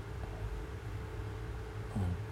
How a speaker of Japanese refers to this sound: 換気扇の音とかも入ってるから